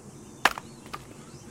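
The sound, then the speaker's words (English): An axe bites into a tree trunk with a sharp, solid thunk as someone chops to cut the tree down, followed about half a second later by a second, softer chop. No voices, just the two wooden impacts. “Strong strokes every time. You're not gonna cut it down in one.”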